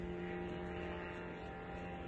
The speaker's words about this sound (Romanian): Unele dintre atacuri au fost filmate de marinari români aflați la Reni. Uite drona, frate. Băi, nene.